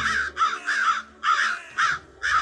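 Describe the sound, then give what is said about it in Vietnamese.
A crow caws repeatedly, loud, in a run of harsh, rasping calls with brief pauses between them. “nghe thấy tiếng quả kêu phát ra từ phía sau lưng thầy lương”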